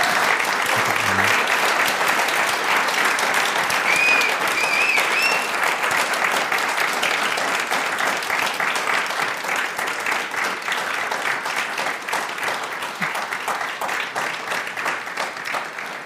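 Sustained applause from a live audience at a special live recording of the show OK America, dense rapid clapping from many hands that stays loud and steady throughout, tapering only slightly toward the end.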